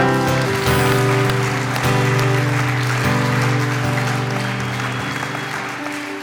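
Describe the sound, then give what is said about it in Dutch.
An audience claps steadily and densely throughout, mixed with sustained keyboard chords that shift every second or two, the applause tapering off slightly toward the end. “Laten we een applaus geven.”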